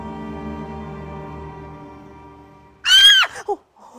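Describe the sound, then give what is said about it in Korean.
A low, sustained droning tone fades, then a woman's sudden shrill scream bursts out loud, followed by a brief second yelp and a faint trailing sound; a younger sibling screaming in a storage shed. “갑자기 뒤에 있던 동생이 비명을 지르더니 네.”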